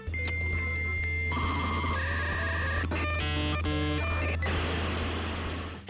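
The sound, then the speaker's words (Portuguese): A dial-up modem handshake: steady dial tones give way to warbling screeches, shifting pitches and harsh crackling static, loud and continuous throughout, with no voices. “Eu ouvi aquele barulhinho que eu vou colocar agora.”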